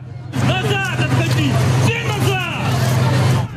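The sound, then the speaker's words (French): A dense, chaotic crowd on a train platform as the train arrives, many voices of crying children and shouting parents calling over one another, with a steady low engine rumble underneath throughout. “Sur le quai, dans une cohue indescriptible, au milieu des pleurs des enfants, des cris des parents”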